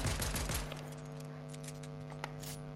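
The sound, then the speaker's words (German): Rapid video game gunshots from enemy snipers firing at the player burst out at the start, then a few scattered single shots follow over a steady humming background drone. No one speaks. “Der denkt sich jetzt, what the fuck, woher kommen die Der Schüsse? Snipes.”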